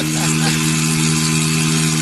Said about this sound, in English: Plus, that engine sounds like a drug dealer's boat.